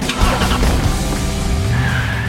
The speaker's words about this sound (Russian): Теперь машина охотнее заезжает в повороты. Устроим тест-драйв.